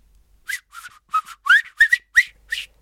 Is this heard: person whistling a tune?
yes